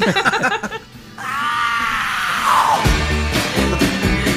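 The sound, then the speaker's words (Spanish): A person lets out a loud, sustained scream lasting over a second, rising and then trailing off, with brief talking just before and after it. “Que ni cómo negarte con ese grito, ¿verdad?”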